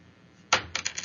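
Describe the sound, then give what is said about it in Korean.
Dice are thrown onto a hard surface for the first roll of a broadcast game, with the background music turned down: a sharp clatter followed by several quick, lighter rattling clicks as they tumble and settle, with no talking. “그렇다면은 오늘 첫 번째 우리 주사위 던져보겠습니다.”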